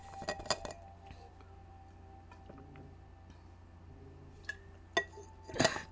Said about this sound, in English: And sorry, let me take some water.